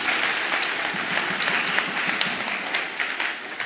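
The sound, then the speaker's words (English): A crowd applauds steadily, dense overlapping claps at a fairly loud, even level for a few seconds with no voices standing out. “Give him a hand.”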